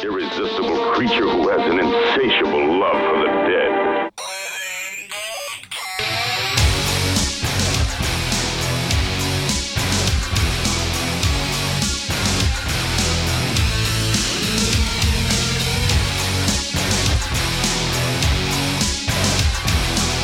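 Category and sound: rock song playing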